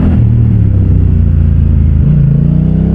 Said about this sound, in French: C'est une moto qui est bien équipée de base. Hein. On a le régulateur de vitesse, l'écran tactile de 6,5 pouces qu'on connaît sur la Free Twin. La NT1100, elle est proposée en boîte méca ou en boîte DCT exactement comme l'Africa Twin.